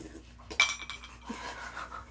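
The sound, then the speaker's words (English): Glasses clink together in a toast, one bright tap that leaves a short, high ring. A softer knock follows, with quiet room murmur and no talking. “Oh, cheers. Cheers, ladies.”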